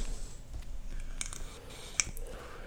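A single crisp finger snap rings out, sharp and bright, with a few fainter clicky snaps before it over a quiet background. No one speaks.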